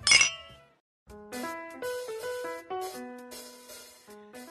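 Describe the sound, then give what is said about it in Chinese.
A single bright clink of glasses rings out and fades, then after a short silence a cheerful melodic tune of chiming, bell-like notes begins and keeps playing. “聊精酿，聊好酒，跟生活干杯！”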